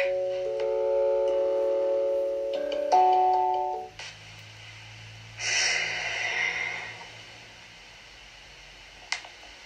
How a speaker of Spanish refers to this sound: Respiración diafragmática.